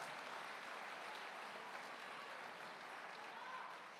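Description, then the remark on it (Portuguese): A church audience applauds God steadily. It is a dense, even wash of many hands clapping at once that holds at a constant loudness throughout, with no voices standing out. “Aplauda esse Deus!”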